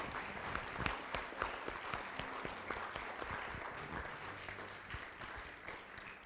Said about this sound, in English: Um, let's, let's give her another big round of applause for having.